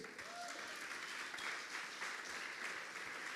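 An audience applauds steadily in praise of God (the King), a dense, even wash of many hands clapping at a fairly strong level throughout, with no one speaking over it.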